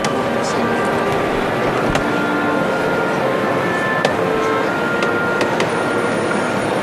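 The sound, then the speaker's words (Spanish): Wood creaks and groans as the large wooden basket of a Holy Week procession float carrying a crucifix shifts, with scattered high squeaks and sharp ticks over a steady, dense murmur of crowd noise. “Se escucha el crujir de la madera. Este canasto voluminoso.”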